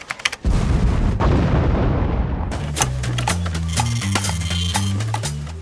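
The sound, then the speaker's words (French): A loud, booming explosion representing the Big Bang erupts after a few sharp cracks, its deep rumble rolling on for seconds before giving way to a bright musical sting with stepped low tones. “Qui a déclenché le Big Bang”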